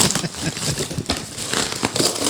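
Noisy crinkling and ripping as the packaging of an insect hotel Christmas gift is torn open, revealing a broken insect hotel; a busy rustle with several sharper tearing bursts over a couple of seconds, no voices.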